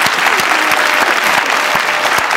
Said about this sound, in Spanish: ¡Wow! Aplauso por esa.